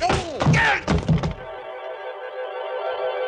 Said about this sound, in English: The front of his gun slapped against the side of my head, and I went down to my knees.